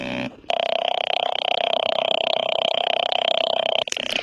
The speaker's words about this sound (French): La particularité de ces moteurs, c'est que les bruits qu'ils produisent sont très proches des notes de musique.